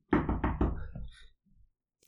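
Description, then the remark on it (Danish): Three quick, heavy knocks on a door by the police, loud, followed by a brief fading resonance and then silence. “Der var nogen, der bankede på.”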